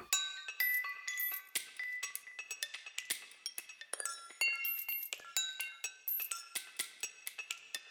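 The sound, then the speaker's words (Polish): Small tube-shaped glass and metal beads clink and jingle continuously, a dense, bright scatter of tiny tinkling hits with no voices. “W kilku miejscach nawlekły się na nie szklane i metalowe koraliki w kształcie rurek.”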